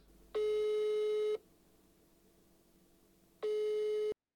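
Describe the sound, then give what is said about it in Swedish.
Two long electronic ringback tones, each about a second long with a steady pitch, separated by a quiet gap on a phone line, heard clearly with no talking. “Eftersom turnén börjar snart tänkte jag att vi ringer upp Camilla och känner henne lite på pulsen”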